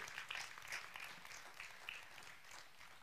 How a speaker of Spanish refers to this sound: si le va a dar un aplauso a él, déselo fuerte, déselo fuerte.